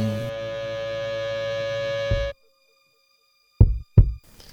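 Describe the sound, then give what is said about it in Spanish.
A sustained, humming musical chord cuts off into silence, then a single deep heartbeat sounds: two close, low thumps, lub-dub, heard clearly and alone. “Mientras escuchamos el latido del corazón”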